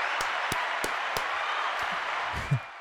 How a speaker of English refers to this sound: We're going to give her a round of applause.